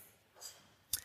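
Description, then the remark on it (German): A single quick, soft sneeze: a faint breathy intake, then a short, sharp hissing burst that stops abruptly. No one speaks. “Ein leeres Blatt Papier, Gesundheit,”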